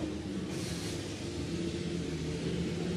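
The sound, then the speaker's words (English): A Porsche 911 race car engine rumbles steadily at low speed as it drives into the pits along the Ulmann Straight, a continuous droning growl with broad mechanical noise and no talking over it. “It is uh, alongside, it's along the Ulmann Straight, so uh, pits in, as the 911 does make its way in behind us.”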